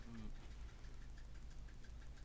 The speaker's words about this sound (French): On entend le minuteur derrière. T'entends Écoute.